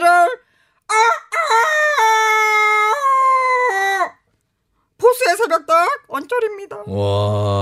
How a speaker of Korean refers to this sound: 진짜 종소리도 들리고 네, 닭도 울고 이거 진짜 새벽 같네.